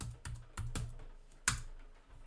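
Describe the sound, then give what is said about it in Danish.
Slow, deliberate typing on a computer keyboard, with a handful of separate key clacks spaced unevenly and one sharper, louder keystroke near the end, no talking. “Det er jo den langsomste måde, du har skrevet på.”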